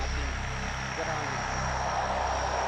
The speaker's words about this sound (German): Stunden später erreiche ich Tuvalu, ein Inselstaat im südlichen Pazifik. Nur einmal die Woche landet ein Flugzeug auf der Landebahn von Funafuti, der Hauptstadt.